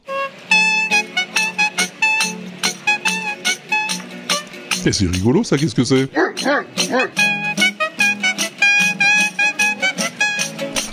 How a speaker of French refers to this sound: C'est le mec qui joue de la feuille. C'est encore Stéphane qui nous l'a envoyé. Oui, c'est un musicien de rue, il a sa guitare et puis un sac plein de feuilles. Oui, des feuilles d'arbres hein